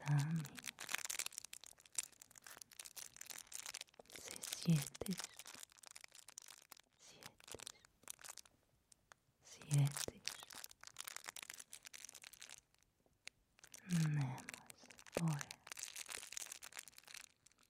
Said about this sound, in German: Ich höre jetzt den Klettverschluss. Wenn ich nach unten in die Matratze horche, höre ich darunter leise und angestrengt die Klettverschlüsse ziepsen.